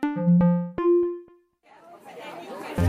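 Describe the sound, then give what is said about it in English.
A short sequence of ringing chime tones fades out, then a busy murmur of many overlapping voices rises at a train station where people are heading to a march, indistinct crowd chatter growing louder toward the end. “Everyone just seems really excited and it sounds like there are people talking who I've never met before who are sharing their reasons for going.”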